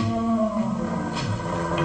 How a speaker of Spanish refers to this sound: Gruñidos. Se detiene justo al borde de la zanja. Solo tiene que dar un paso más para caer hacia la muerte cuando los gruñidos a su espalda lo hacen detenerse y mirar a su alrededor. Ah, allí hay un animal que se acerca cauteloso.